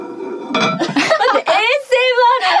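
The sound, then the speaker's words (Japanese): The lid of a heavy ceramic donabe clay pot clinks and rattles against its pot, with a faint ringing tone, while people talk and laugh over it. “ほら、とか土鍋ここにあるんだよ土鍋があった。”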